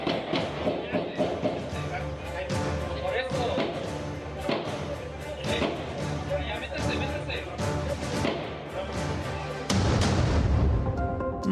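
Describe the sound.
Repeated gunshots crack out at irregular intervals over several seconds during a shootout with people barricaded in a housing complex in Zitácuaro, Michoacán, sounding muffled, with a dense background rumble and indistinct voices underneath.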